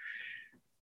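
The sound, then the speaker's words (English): A single short, loud cat meow, high and strained, as the cat is thrown off a desk, cutting off abruptly after about half a second, followed by a brief silence. “That was the, the sound of a cat being thrown off the desk.”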